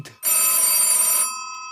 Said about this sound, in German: Das Telefon klingelt.